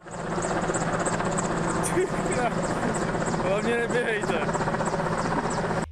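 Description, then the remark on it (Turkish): A helicopter in Czechia drones loudly and steadily overhead, scattering one million dollars, while a crowd of people shout and talk beneath it, competing to collect the money; the rotor noise fills the whole scene without a break. “Reklam için helikopterden 1 milyon dolar saçtı.”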